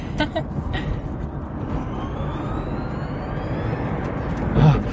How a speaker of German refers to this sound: Und wir haben es auf über 60 km/h geschafft. Also Beschleunigung ist äh, wie so bei einem E-Auto üblich relativ gut.